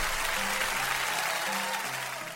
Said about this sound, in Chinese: 魔术师可卡犬表演了神奇的巨狗魔术。将一只斑点狗锯成了两半，精彩的表演迎来了满堂的喝彩。